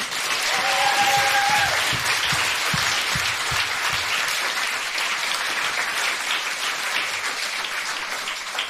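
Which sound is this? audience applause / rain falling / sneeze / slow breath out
audience applause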